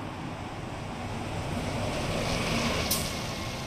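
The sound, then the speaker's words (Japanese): Steady roar of traffic on a road, heard from the sidewalk while standing still facing the roadway with a microphone held up, as three cars pass from left to right; a low rumble that swells slightly toward the end, broken by one brief sharp hiss; no one speaks. “あこれちょっと試しますね今僕車道に向かって立ち止まりましたはい”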